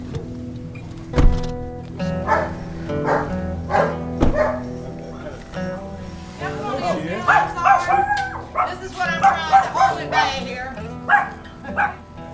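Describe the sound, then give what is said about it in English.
A small Pomeranian rescue dog named Lily Pearl barks sharply in short, high yips, then breaks into drawn-out, wavering howls that rise and fall, loud throughout. “And she's got three small Pomeranians Precious, Princess, and the one I'm hearing now, a rescue dog named Lily Pearl.”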